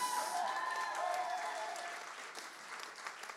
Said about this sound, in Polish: więc wielkie brawa dla Bartka